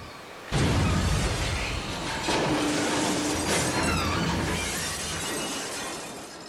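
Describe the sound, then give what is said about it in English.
A loud, dense crashing and splintering din, meant as orcas (killer whales) attacking small boats, bursts in after a short moment and roars on steadily for several seconds, chaotic, like a hull being battered, with no voices. “Scientists say that over 20 orcas, also known as killer whales, have been attacking small boats.”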